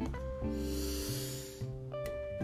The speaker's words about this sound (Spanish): Inhalamos profundo. Exhalamos. Concéntrate en tu respiración. Inhalamos nuevamente.